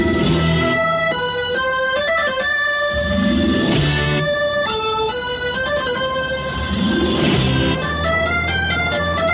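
A loud rock band plays a cover of another artist's composition: an instrumental passage with thick sustained chords that shift in pitch and crashing cymbal swells every few seconds, driving steadily with no vocals.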